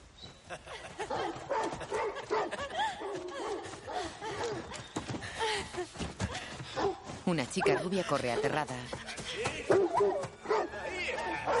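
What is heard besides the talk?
hunting dogs barking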